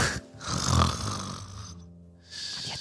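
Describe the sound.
A person loudly imitates snoring, a long rasping inhale with a rattling, nasal quality followed by a shorter breathy snort, with no other talk.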